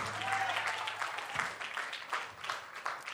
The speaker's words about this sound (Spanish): De hecho, un aplauso a ellos. Viene esa gente. Pero un aplauso bien.